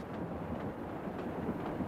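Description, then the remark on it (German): A train to Germany rolls along the rails with a steady rumble and faint rhythmic rattling, continuous and even in loudness throughout, with no voices. “Ich durchschwamm den Rhein nach Österreich, wanderte weiter bis zum nächsten Ort und stieg in den Zug nach Deutschland.”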